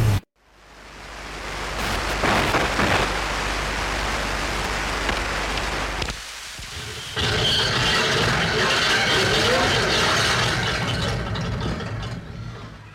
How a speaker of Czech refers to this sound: je to nejlepší nebo jeden z nejlepších irských noizů